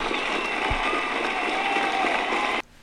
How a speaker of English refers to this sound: So let's give it up for um, for you guys. Let me play a um, clapping sound effect.